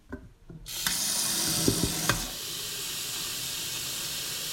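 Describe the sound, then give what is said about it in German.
Water runs steadily into an electric kettle with a hissing rush as it is filled and switched on to boil water, broken by a couple of sharp clicks midway, then keeps flowing evenly to the end. No one speaks. “Gut, jetzt habe ich halt den Wasserkocher gestartet”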